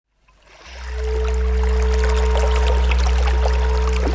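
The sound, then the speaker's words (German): A bubbling spring of salt water (brine) at the southeastern edge of Bavaria, Germany, welling up from the ground, gurgles and rushes steadily, rising within the first second and then continuing evenly over a low, constant hum. “Am südöstlichsten Rand Bayerns sprudelt seit Jahrtausenden eine ganz besondere Quelle.”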